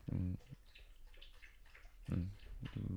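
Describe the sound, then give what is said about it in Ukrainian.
A dog laps water from a bowl, a quick run of soft rhythmic wet slurps, with short bursts of a person talking just before and after. “Почекаю, коли собака поп'є води.”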